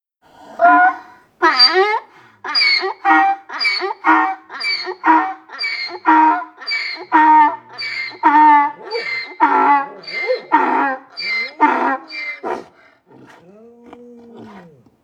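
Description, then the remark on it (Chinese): A little donkey brays loudly in greeting to a calf, in a long run of rhythmic, harsh hee-haw cycles, about a dozen in quick succession, before trailing off into a softer, lower wheezing groan. “这时候，一头小毛驴过来和小牛打了个招呼。”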